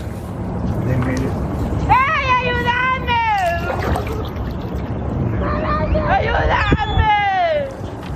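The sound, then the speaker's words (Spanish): Two long, strained, high-pitched shouts for help from a mother and her son drowning in the Rio Grande rise over a steady wash of river water and splashing, with murmuring in the background. “A pesar de gritar pidiendo ayuda, como podemos escuchar, los guardias pasan cerca y se hacen los indiferentes.”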